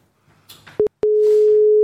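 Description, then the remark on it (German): A telephone line tone: a short low-pitched beep, a brief gap, then a steady unbroken hum that holds to the end, preceded by faint rustling and handling noise. “Soll ich gucken, ob es gleich klingeln tut?”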